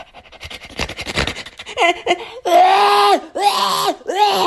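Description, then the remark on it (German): An adult voice imitates how a child starts to scream: breathy, whimpering sounds build into three loud, drawn-out wailing screams. “also pass auf, weißt du, wie es losgeht, wenn sie anfängt zu schreien?”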